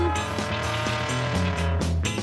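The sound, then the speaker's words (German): The engine of a small sky-blue Trabant rumbles loudly, a steady droning hum with shifting pitch as the car pulls up and stops in pouring rain for someone waving at passing cars. No one speaks. “Ich winkte den Autos und eines ein kleines hielt an.”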